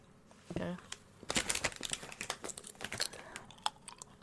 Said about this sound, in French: Et je vais manger une chips et, et dans votre oreille, les misophones, trigger warning, je vais faire un peu d'ASMR.